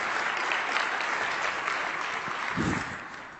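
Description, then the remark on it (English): An audience gives a brief round of applause for the winners of the AWS Slack Hackathon, a dense, steady patter of many hands clapping that holds for a few seconds before easing off slightly at the end. “I would uh, appreciate a quick round of applause for the winners for the AWS um, Slack Hackathon.”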